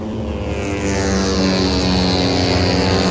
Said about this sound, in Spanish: es el curvón grande que hay en la parte trasera del circuito de Jerez, justo debajo de la torre de Tío Pepe, que es uno de los emblemas de este trazado. Mira, así suenan las motos